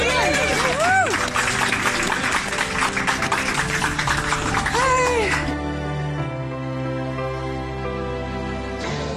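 A crowd claps enthusiastically for a young woman for about five seconds, dense, with a few rising whoops over it, before the applause cuts off and gentle music takes over.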